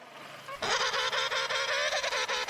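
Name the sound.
penguin calling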